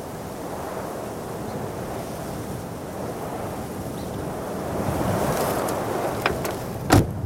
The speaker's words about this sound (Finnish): Täällä on ollut kauhean kova tuuli. Me tultiin tänne autoon suojaa.